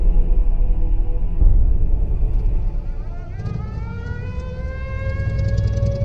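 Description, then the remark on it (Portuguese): A strange, deep, steady rumble fills the background, heard from a house, and partway through, distant sirens slowly wind upward and keep wailing on top of it. “Amália passou a ouvir o estranho e grave ruído longínquo e as sirenes distantes.”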